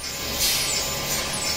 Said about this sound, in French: C'était le bruit de l'ordinateur quantique d'IBM, l'IBM Q. L'IBM Q, eh oui, c'est comme ça qu'il s'appelle.